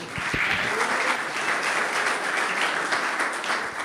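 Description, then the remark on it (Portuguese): A crowd at a religious service claps for the Lord, a dense wash of many hands applauding at an even, sustained level for several seconds with no voices standing out. “Aplaude ao Senhor.”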